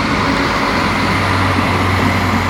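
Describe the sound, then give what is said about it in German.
A train rolls past, a loud, steady rumble with a deep droning hum and a broad hiss above it, holding constant throughout with no voices. “lass mal kurz einen Zug vorbeifahren”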